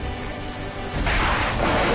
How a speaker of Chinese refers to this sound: 陈刚看着眼前这神奇的画面，一道道耀眼的白光伴随着天空巨大的雷声向自己涌来，一束束闪电击中冲锋舟里的能量球，又被其全部吸收。